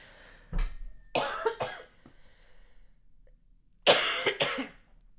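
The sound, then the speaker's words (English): A person coughs several times in two clusters, harsh bursts in quick succession, with a short quiet pause between the groups and no talking. “Sorry, had to cough there.”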